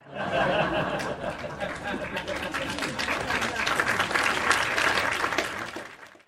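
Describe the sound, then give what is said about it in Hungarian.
An applause sound effect: a burst of applause from a crowd, steady and dense clapping throughout, with some laughter and chatter mixed in beneath it before it fades out at the end. “Vannak már ilyen hangeffektjeitek?”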